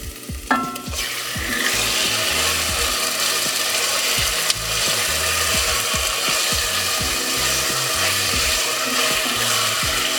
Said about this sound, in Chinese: 跟我们的姜碎给放下去，稍微让它爆香了之后呢，我们就把我们的鸡肉也放下去一起煎。